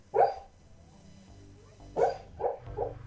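A dog lets out a muffled woof, then after a pause three soft, stifled barks in quick succession, with faint whimpering undertones, fairly quiet, as the dog barks in its sleep while dreaming.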